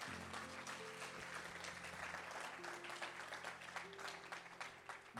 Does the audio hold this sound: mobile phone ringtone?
no